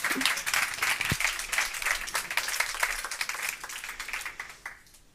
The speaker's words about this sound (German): Wir freuen uns schon riesig auf euren Vortrag. Also ein Applaus.